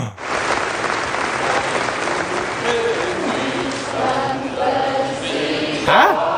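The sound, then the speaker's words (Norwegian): An audience applauds steadily for several seconds, clapping the King out at the end of the opening, a dense, even wash of many hands clapping, with a few raised voices and cheers rising briefly through the clapping toward the end. “Og akkurat på slutten, når vi klapper kongen ut, så er spenningen på sitt høyeste.”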